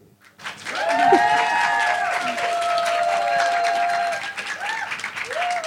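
An audience bursts into steady applause that holds for several seconds, dense and fairly loud, with some cheering and whistle-like tones rising above the clapping.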